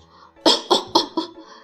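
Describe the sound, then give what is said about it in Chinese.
A voice imitates a man's cough coming up from the cellar door under the stairs: four rough, breathy bursts in quick, even succession, the first strongest and the later ones slightly weaker, with no speech around them. “那个家伙咳嗽着说”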